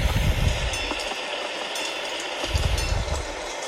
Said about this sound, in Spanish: Buenos días a todos. Tormentón enorme, son las 5 de la mañana estoy montado en el tren. Allí que vamos.